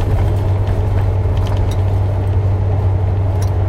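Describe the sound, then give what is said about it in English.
A large truck's engine drones steadily with a deep, constant low hum and broad road rumble as it drives on a road with cones in the middle of it, loud throughout, with no voices. “Man, there's fucking cones all in the road, and I'm driving this big ass truck.”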